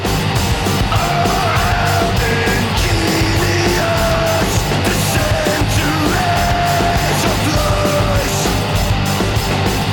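A rock singer screams and yells at full force over a dense, loud wall of distorted band music that roars without pause for the whole stretch.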